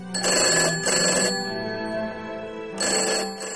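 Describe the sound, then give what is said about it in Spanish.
A telephone rings in two quick bursts, pauses, then rings again, a bright, buzzy electronic bell tone, fairly loud, with no voices. “Había recibido una llamada de su padre.”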